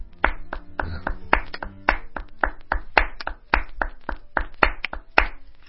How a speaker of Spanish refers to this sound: Ah, Así. Aplaudir sí. Aplaudir sí. Aplaudir sí. Claro.